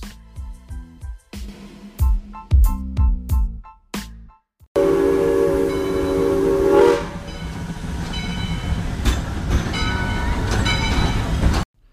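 A train rolls in with a rhythmic chugging clatter, then a loud, sustained steam whistle blows over steady rumbling and hissing noise that continues until the end. No one speaks.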